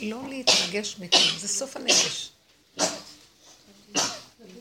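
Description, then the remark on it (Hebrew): A few sharp, breathy sneezes burst out, spaced unevenly amid someone talking, each one a sudden loud puff that quickly fades. “בריאות.”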